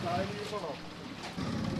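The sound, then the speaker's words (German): A small boat crosses Lake Lauerz from a small house on an island to pick someone up, its low engine rumble and water noise steady, with brief muffled voices mixed in. “Und tatsächlich ist jemand das Insel durchab gestiegen, also von dem Örtli, von dem äh, Häusli ab ins Boot hineingestiegen und kommt zu mir rüber, mich hier abholen.”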